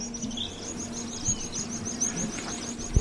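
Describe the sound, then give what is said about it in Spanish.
Shrill, high-pitched calls of swifts repeat in a quick, continuous series throughout, fairly faint, over a low steady background hum with no one speaking. “O sea que los vencejos se les conoce porque son las aves que prácticamente no dejan del, no abandonan el vuelo, están todo el día volando, hasta durmiendo están volando.”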